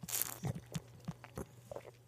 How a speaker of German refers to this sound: Moment, ich muss kurz was trinken.